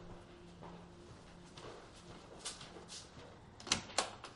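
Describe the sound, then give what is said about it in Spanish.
A door in a bachelor apartment being opened: soft shuffling and handling noises build up, then a couple of sharp latch clicks and a rattle near the end, with no talking. “se dirige a abrir la puerta.”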